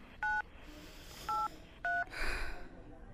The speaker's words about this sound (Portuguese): Vamos lá. Vou pegar esse telefone e vou ligar.